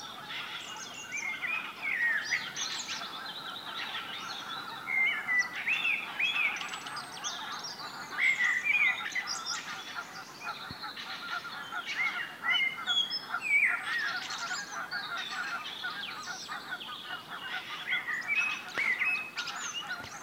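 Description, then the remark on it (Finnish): A Eurasian blackbird sings clear, fluty phrases over a steady background chorus of honking geese, with no voices in this outdoor scene. “Tämäkin aika hieno yhdistelmä mustarasta solistina ja sitten hanhet taustakuorona.”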